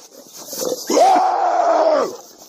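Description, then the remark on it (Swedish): A man's voice lets out a loud, drawn-out roar of about one second as he screams at a bear at the forest edge in Hälsingland while charging it. It is guttural and rasping, rising sharply and then fading, with no other talking. “Alltså det där är inte björnen, det är ….”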